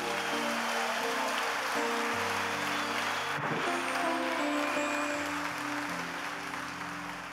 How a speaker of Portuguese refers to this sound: Dá uma salva de palmas, Jesus, aleluia.